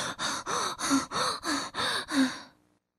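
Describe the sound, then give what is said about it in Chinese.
A voice acts out frightened, breathless panting: about eight quick, even gasping breaths with a slight voiced catch, loud and alone, then it stops abruptly. It portrays Peter, a story character, sitting down to catch his breath, trembling with fright and out of breath after fleeing Mr. McGregor. “彼得坐下来喘口气儿，他吓得浑身发抖，上气儿不接下气儿。”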